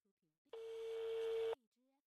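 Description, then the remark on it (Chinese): A single steady telephone busy tone, loud and level, holds one pitch for about a second, with brief soft voice fragments just before and after it. “您好，您拨打的电话正在通话中，请稍后再 拨。”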